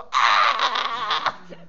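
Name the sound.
voice imitating a scream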